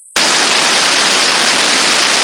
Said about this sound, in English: Oh no! no. Static again. Oh wait, did it go away? No, it didn't.